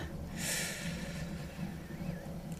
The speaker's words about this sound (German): Nimm die Schultern jetzt tief und dann atmen wir jetzt einfach mal zusammen. Wir atmen vier ein.